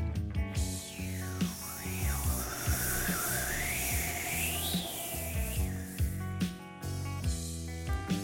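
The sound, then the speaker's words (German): A steady breathy hiss made with the mouth, with a rubbing, papery texture from business cards rubbed on a table, imitates wind, its whistling tone rising and falling in slow gusts for several seconds, fairly loud, with no talking; recorded with stereo microphones. “Also kann man mit dem Mund das Zischen machen und zusätzlich ein paar Materialien aufeinander reiben.”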